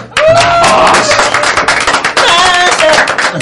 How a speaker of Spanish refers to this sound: Y en este día... Un aplauso.